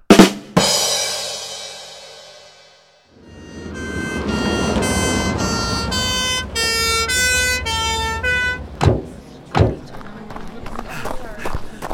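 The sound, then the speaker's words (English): An ambulance siren wails loudly as the ambulance arrives, its tone rising and falling for several seconds over rumbling background noise, followed by a few sharp thumps as it fades. “Move aside, please. The ambulance is here.”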